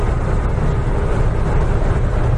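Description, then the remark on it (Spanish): A steady, loud low-frequency engine rumble of a ferry fills the whole stretch, constant and droning, heard on board below deck right beside the sea, with no voices over it. “El sonido es un poco así ruidoso porque es el ferry, estamos abajo justo al lado del mar y la señora no para de gritar por megafonía.”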